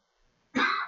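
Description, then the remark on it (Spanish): After a moment of near silence, a sudden, harsh throat-clearing cough bursts out loud, rough and strained as a person chokes, lasting about half a second with no talking. “Se está ahogando el, el coche”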